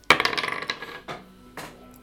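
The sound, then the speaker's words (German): Dice clatter and rattle across a hard tabletop in a quick burst of tumbling clicks, followed by two more separate knocks as they come to rest. They are rolled for a skill check and come up 13. Fairly loud, with no voices. “Du würfel bitte mal mit oh einer Fähigkeit Wirt.”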